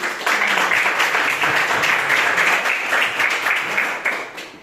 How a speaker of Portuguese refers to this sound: E eu agradeço a oportunidade, as palmas que adorem ao Senhor Jesus.